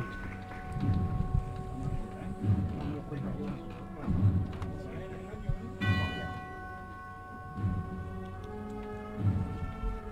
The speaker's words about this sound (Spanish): La campana que va anunciando nuevo sonido.